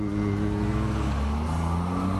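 A car engine hums loudly and close by, its tone shifting partway through as the vehicle passes. The steady rumble fills the whole moment with no one talking.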